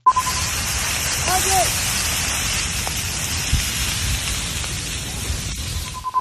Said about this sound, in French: On entend dans cette vidéo publiée par les pompiers de Milpitas qui combattent le CSU Lightning Complex le feu qui crépite et qui dévore tout sur son passage.